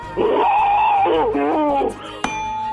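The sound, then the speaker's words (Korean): A voice imitates boiling water in a voice-mimicry contest segment, 성대모사 달인을 찾아라, with a sustained, warbling hum that breaks into quick bubbling wobbles, followed by a single sharp click near the end. “물 끓는 소리입니다.”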